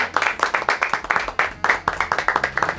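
A small group in a studio claps steadily and fairly loudly for the sports director as he arrives, the hand claps landing in a quick, even rhythm that continues throughout with no one speaking.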